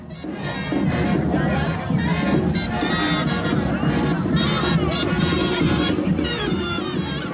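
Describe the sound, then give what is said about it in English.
A dense outdoor crowd at a Halloween parade in New Orleans, a loud, continuous wash of many voices, shouts and cheers blending together with no single speaker standing out. “That is the sound of the Krewe of Boo Halloween Parade in New Orleans”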